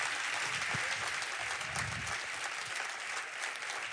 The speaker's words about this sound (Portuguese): E com muito carinho, receba apóstolo Estevam aplaudindo ao Senhor, em nome de Jesus.